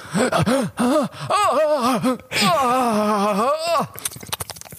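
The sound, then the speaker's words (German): A voice imitates the pained scream of a person whose nerve is being drilled at the dentist, loud, with a few short wavering cries that swell into one long, strained wail before trailing off into breathy noise. “so hat Ekan eh ungefähr geschrien, als sie in seinen Nerv gebohrt haben”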